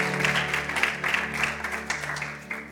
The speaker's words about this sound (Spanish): Primero les damos un fuerte aplauso a los que están con nosotros a través de las redes sociales una vez más, mis hermanos, bienvenidos.